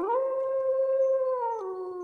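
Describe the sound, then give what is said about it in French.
A lone grey wolf in a dark forest howls in one long, sustained note that rises at the start, holds steady, then steps down in pitch near the end. Loud, with no talking. “Soudain, un loup gris bondit à sa rencontre.”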